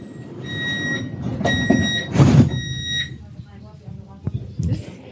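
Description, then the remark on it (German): Ambience aboard a U-Bahn subway train: a low rumbling hum, a steady high-pitched door warning tone lasting a few seconds, and a whooshing slide of the doors, with faint voices murmuring underneath. “Ich sitze wieder in der U-Bahn”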